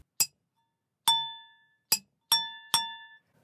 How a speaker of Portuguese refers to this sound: O atarigané produz principalmente dois tipos de som, um quando é tocado no meio e outro quando é tocado na lateral